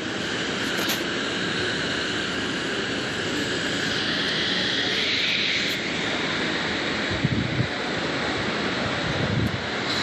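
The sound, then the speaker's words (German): A pink, orange and red helicopter sitting on a roof directly ahead runs continuously, a loud, steady roar of engine and rotor with a high whine on top, filling the whole stretch without any voices. “Direkt hier auf dem Dach vor uns. Rosa, orangener, roter Hubschrauber.”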